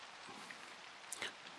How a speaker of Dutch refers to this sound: Het regent.